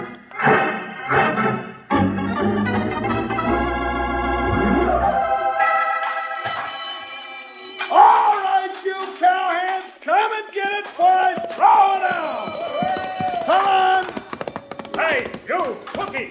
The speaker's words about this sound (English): Quit beating on the triangle or I'll wrap it around your neck. Now, what's the matter? I thought it sounded right pretty.